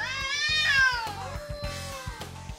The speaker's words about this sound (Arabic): إذا شي يوم حضرتوا خناقة بين قطتين أكيد سمعتوا مثلا الصراخ اللي بتطلعه القطة بحالة العراك أو بحالة المنافسة